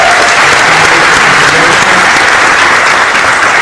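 Loud, sustained applause from an audience, a dense steady wash of many hands clapping that fills the whole stretch without pause or a clear fade.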